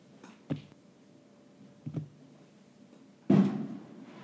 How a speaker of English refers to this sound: Also, may have heard that uh, bang. A lot of fireworks going off. The 4th of July has passed, but I am in Northeast LA, Highland Park specifically.